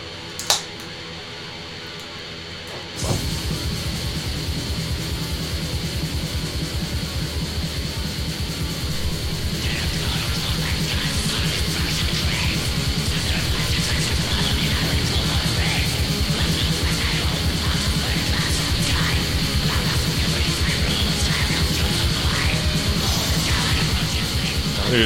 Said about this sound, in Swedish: Nu har vi någon sorts eh, lite creepy intro här.